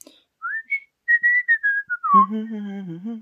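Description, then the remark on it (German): A short whistled melody of a German advertising jingle for Thomy, a string of clear rising and falling notes, followed by a sustained, singing-like voice that carries the tune on. “Da wurde auch gepfiffen.”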